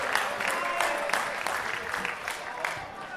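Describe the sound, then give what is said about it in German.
A large audience boos a political party bloc being presented, a dense wash of crowd voices with scattered shouts rising above it, sustained for the full few seconds. “Also, äh, die sind äh, gern, ähm, gern immer wieder ausgebuht worden. Das verhält sich hier auch nicht anders.”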